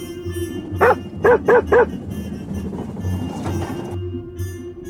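A dog barks four times, a single bark followed by a quick run of three, loud against a steady, rhythmic low rumble that continues underneath throughout.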